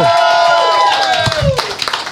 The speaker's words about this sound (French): J'aimerais qu'on applaudisse très très fort Antoine Dabrowski, s'il vous plaît, l'équipe de Tsugi Radio.